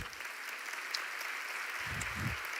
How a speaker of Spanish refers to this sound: ¿Cuánto le dan un aplauso al Señor por eso.